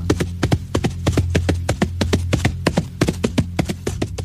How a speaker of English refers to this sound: Finally, Alfred comes trotting up the path on the back of a dark bay mare. He pulls up to the paddock and hops off.